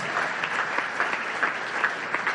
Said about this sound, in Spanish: ¿Cuántos le pueden dar un aplauso a Cristo? Amén, al Señor Jesús.